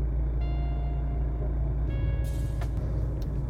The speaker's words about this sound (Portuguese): eu estou falando aqui diretamente de dentro do meu carro para fazer essa introdução do episódio aí